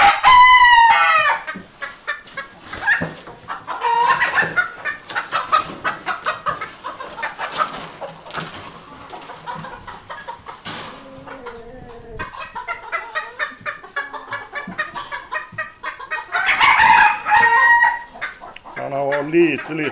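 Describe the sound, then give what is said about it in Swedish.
A somewhat stressed rooster, being shown before judges, clucks in busy, repeated bursts and breaks into a loud, strained crow near the end, the calls rising sharp and harmonic over a steady background of agitated fowl sounds. “Och sen har vi tuppen. Nu är han ju lite stressad men eh, eh vingarna ska ju bättre upp på honom.”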